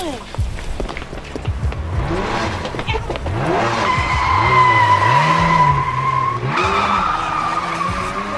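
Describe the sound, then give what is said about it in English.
A stolen car's engine revs hard up and down through several surges, then its tires let out a long, loud, sustained screech as the car skids and speeds off. “that right there, from when he stole a car”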